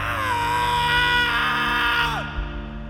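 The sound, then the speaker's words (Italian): A single loud, sustained scream in an apartment building holds a high pitch for about two seconds, then slides downward and breaks off, with no talking around it. “esce di casa e dopo pochissimo tempo la figlia sente un urlo.”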